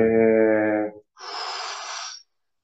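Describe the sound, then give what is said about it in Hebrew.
Two deep, full breaths taken in a breathing exercise, filling the lungs from the belly and chest: first a voiced, humming breath, then after a short pause a long, airy rush of air. No talking. “תמשיכו עם נשימות כאלה עמוקות, מלאות, תרגישו איך אתם מתרחבים וגדלים כשאתם מכניסים אוויר פנימה, ואיך אתם קצת יורדים, מתכווצים, כשהאוויר יוצא החוצה, כמו אקורדיון כזה”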